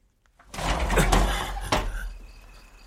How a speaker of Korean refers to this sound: 아니 왜 창문을 열고